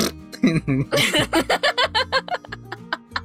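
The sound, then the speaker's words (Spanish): A voice mimics a muddy shoe soaked and filled with water, squelching, with a quick series of about a dozen short, wet, pulsing vocal bursts, fairly loud, with no actual words. “El zapato, el zapato con el lodo. Cuando tú ah, cuando tienes tu zapato pues, mojado y se llena de agua y suena feo.”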